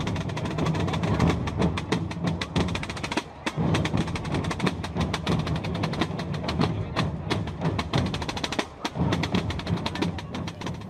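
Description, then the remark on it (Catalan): A loud, sustained kettledrum roll plays as a short jingle introducing an events agenda section, with rapid continuous hits rumbling for about ten seconds and a couple of brief breaks in the middle, no voices over it. “Sonen timbals, Ivan, i això és sinònim d'agenda.”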